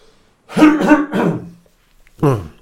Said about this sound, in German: So, ich brauche doch noch mal eine Räuspertaste. Ich war ja bisher immer zu geizig, mir noch eine Remote zu kaufen.